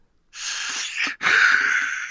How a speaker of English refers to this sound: I was yawning in the middle of that.